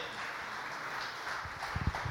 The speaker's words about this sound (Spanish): ¿Cuántos pueden dar un aplauso señores Señor en esta noche?